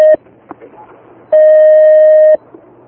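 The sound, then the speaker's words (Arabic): A steady electronic telephone tone sounds briefly at the start, then rings out again for about a second, loud and clear over a faint background of low voices, as a phone call to a sheikh is taken. “أحسن الله عليكم يا شيخ استقبل هذا الاتصال”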